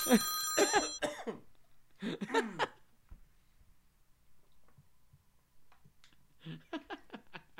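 Harsh, strained coughing in three bouts, as if choking on a cookie. A short burst opens, then another, and a final rapid string of hacking coughs, with quiet gaps between.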